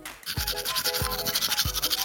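Teeth being brushed with a toothbrush: steady, bristly scrubbing strokes in a quick back-and-forth rhythm, with a soft low bump about every two-thirds of a second. Fairly loud, with no talking.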